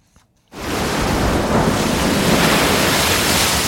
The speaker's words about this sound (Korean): 아우야 날씨 추운데 왜 파도 소리 오늘 보물이 뭐 파도하고 관계 있나 아무튼 예 이 파도 소리가 일부에 나가는 어, 노래 중간에 나올 거예요.